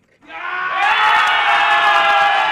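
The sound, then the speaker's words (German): Eintracht Frankfurt football fans burst into loud, sustained cheering of joy and relief at the final whistle of the match against West Ham United that sends their team to the final, a dense wall of many voices that swells quickly and holds at full volume with scattered shouts and whoops. “Jubel, Freude, Erleichterung unter den Eintracht-Fans.”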